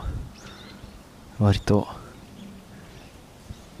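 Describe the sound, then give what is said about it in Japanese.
Faint calls of a brown-eared bulbul chirp briefly outdoors at the Izumi no Mori forest in Yamato, downstream of its main area, over a quiet background, with a short burst of speech in the middle. “えー今メインで鳴いてんのはまあヒヨドですねはい今日はですね、えー、泉の森ですね”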